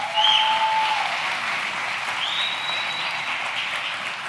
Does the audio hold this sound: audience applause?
yes